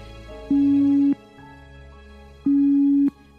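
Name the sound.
telephone ringback tone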